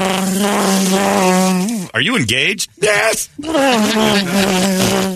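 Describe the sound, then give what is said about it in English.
A loud, steady electric buzz from a ring-shaped vibrator worn like a ring on a finger drones almost continuously, dropping out briefly in the middle as two people trade a few short words over it. “Hey, ladies, what's that buzzing at here in the sales pitch?”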